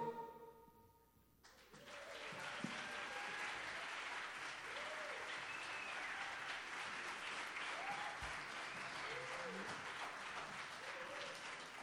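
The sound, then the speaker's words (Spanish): A live concert audience applauds a band's performance, broadcast on Radio Universidad 96.1: a dense wash of clapping that starts abruptly after a brief tonal fade and holds loud and even, with scattered whoops and cheers rising above it. “esta gran banda y también, por supuesto, así suena el público que nos visita esta noche totalmente en vivo.”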